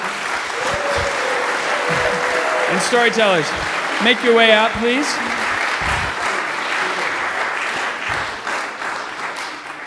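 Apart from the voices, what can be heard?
audience applause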